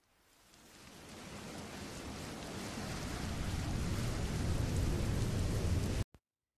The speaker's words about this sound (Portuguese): Em uma noite daquelas com trovões e tempestades,